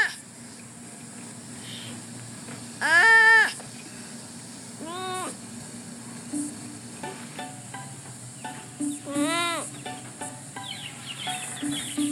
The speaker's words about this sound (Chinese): 好，你各位家听到的声音就是树懒叫的声音。那个发音的方式跟我儿子有点像。好，那我们就一起欣赏到这边。所以现在大家就知道树懒叫的声音是这样子，好，绝对不是上一集 Q&A 讲的那样。